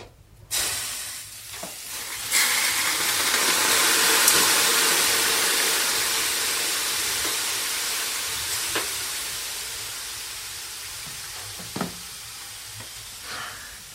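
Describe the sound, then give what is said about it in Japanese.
Water poured from a bucket hits hot stones in a container-type sauna with a high roof at night, with a sharp onset, then a loud, broad steam hiss swells and slowly fades over several seconds, with a few small clicks and splashes near the end. “みんなに伝わってますかねこの蒸気の感じ”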